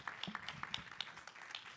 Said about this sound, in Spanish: Si ese aplauso fue para mí, está bien. Si fue para el Señor, tiene que ser más fuerte.